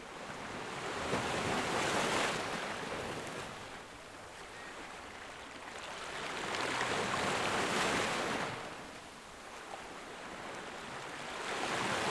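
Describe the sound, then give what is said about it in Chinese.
Ocean waves wash in and recede in slow, broad swells of hissing surf, three rising surges over steady background roar, with no voices. “你仍然闭着眼睛，听着一阵一阵的海浪声。”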